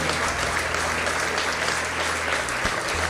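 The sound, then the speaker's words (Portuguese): A church audience applauds God steadily, a dense wash of many hands clapping at once, loud and sustained over a low background hum, with no one speaking. “Vamos aplaudir o nosso Deus.”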